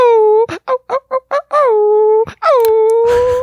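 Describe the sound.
A person imitates a wolf howl: long sustained wavering tones with a series of short choppy yips in between, ending in a drawn-out falling howl and a breathy burst.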